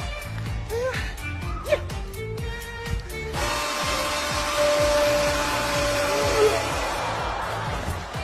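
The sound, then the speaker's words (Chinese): After about three seconds of quick, regular ticking, a hair dryer switches on and blows a loud, steady airy roar with a faint high whine, running unbroken to the end. “姐，你家吹风机在哪儿？”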